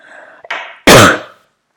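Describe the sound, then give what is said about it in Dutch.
A forceful cough, preceded by a brief throat-clearing rasp, with a loud explosive burst that trails off quickly into silence. No talking. “Ehm, sorry voor deze hoest.”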